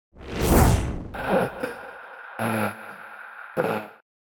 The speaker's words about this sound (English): Th- this way, I say as I'm out of the cab and making my way towards the the sound of that heavy breathing.